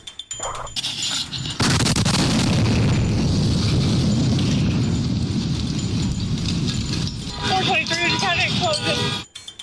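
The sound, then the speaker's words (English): A bomb blast erupts suddenly into a loud, rumbling roar that sustains for several seconds before wavering high-pitched cries or tones rise over it as the din fades out. “Even bombings.”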